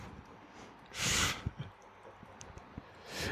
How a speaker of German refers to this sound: Ich glaube, das sind äh, große Kühlschranktüren gewesen.